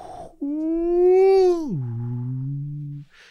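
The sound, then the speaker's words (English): A voice imitates eerie howling wind with one long, fairly loud wail that holds a steady tone, then slides down to a lower moaning pitch before cutting off. “And the sound of howling is just issuing out, just this.”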